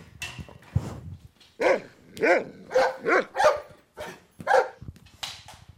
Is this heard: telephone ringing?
no